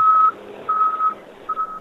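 A garbage truck passing by in a park gives repeated warning beeps, three steady high-pitched tones of even length separated by short gaps, over a faint low engine rumble, with no one talking.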